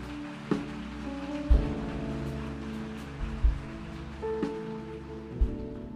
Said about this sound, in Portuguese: Pode aplaudir a ele.